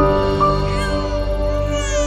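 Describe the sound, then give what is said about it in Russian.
A newborn's thin, wavering cry sounds steady for a couple of seconds, its pitch sliding up and down, with no talking over it. “Заплакал Он ожил, ожил Слава Богу”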